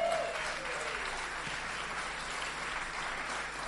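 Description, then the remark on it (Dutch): A standing crowd claps steadily in sustained applause to welcome a speaker, a dense even wash of many hands that holds at a constant level throughout, with no voices standing out. “Dus ik zou willen vragen, Ga eventjes staan, heet hem welkom met een mooi Edes applaus.”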